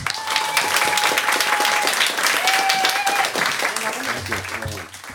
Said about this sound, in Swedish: så jag tycker vi ger honom en riktigt varm applåd.